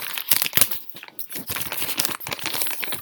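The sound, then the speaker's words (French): Book pages being turned, a busy run of crisp paper rustles and crinkles with a few sharper flicks, fairly loud and continuous for about three seconds with no one talking. “Alors, euh, laisse-moi consulter le livre.”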